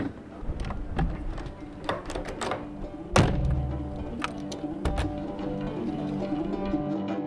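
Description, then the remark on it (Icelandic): A heavy lighthouse door at the Raufarhöfn lighthouse slams shut with one loud, booming thud midway through, its low rumble lingering briefly, surrounded by scattered metallic clicks and rattles from the latch and handle. “Og með þessum hurða skelli í rauvarhafnarvita þökkum við fyrir okkur í dag.”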